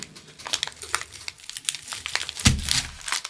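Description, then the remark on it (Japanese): Plastic wrapper crinkles, then a single sharp, muffled crack as a beef-flavored Umaibo puffed corn snack is snapped inside its packaging in an attempt to split it lengthwise into four pieces, followed by more rustling; no voices. “さあどうなったでしょうなんか確かに割れた音はしましたけど。”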